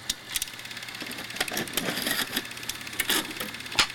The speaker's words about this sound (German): Hier kommt der Jingle.